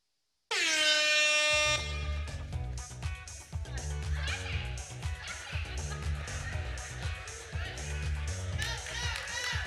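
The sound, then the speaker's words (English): A loud, blaring start buzzer sounds once for just over a second to start a one-handed box challenge game, then gives way to busy, thumping music with a steady beat. “Okay, no holding the box, one handed only, put the other one behind your back, and we're getting ready for the buzzer.”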